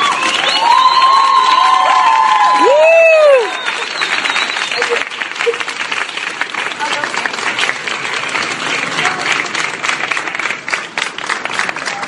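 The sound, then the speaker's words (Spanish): Loud, sustained applause from a crowd applauding a woman's courage, dense clapping with cheers and whistles rising over it early on, then a steady wash of clapping that continues to the end. “Quiero pedirles que demos un aplauso muy, muy fuerte a la valentía”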